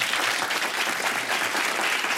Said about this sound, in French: En tout cas, 20 ans de carrière, ça s'applaudit.